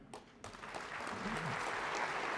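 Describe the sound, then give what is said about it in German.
A crowd bursts into applause, dense clapping that swells within the first half second and holds steady and full, with a faint voice briefly audible underneath. “Applaus”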